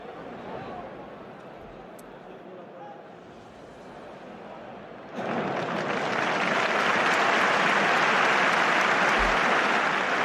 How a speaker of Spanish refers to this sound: Mujeres del toreo, la primera ovación es para ellas.